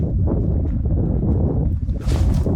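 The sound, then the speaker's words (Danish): Strong wind roars outdoors, a constant low buffeting rumble on the microphone, with a brief surge of brighter, hissing gust near the end. The weather is not cold. “Hvorfor blæser det så meget? Ja, det er helt vildt.”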